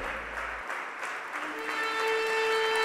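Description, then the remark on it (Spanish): An audience claps in praise to the Holy Spirit of God, a dense, sustained burst of applause that swells slightly, with a steady sustained musical tone rising beneath the clapping partway through. “Dele ese fuerte aplauso al Espíritu Santo de Dios.”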